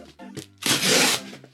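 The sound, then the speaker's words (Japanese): A loud rip as a freshly delivered cardboard box's packaging is torn open, one sustained tearing burst lasting about half a second, framed by softer rustling and handling noises before and after. “わもうほぼ開いたなんかさあのよくあるやんプレゼントとかもらってさ包装紙ぐしゃぐしゃにあの剥く人とさ綺麗にさ剥く人いるやん私完全にぐしゃぐしゃ派でさあれ綺麗に剥けたことないよなしかも「見て」とか言いたいんだけどさこれ今段ボール開けてんだけど”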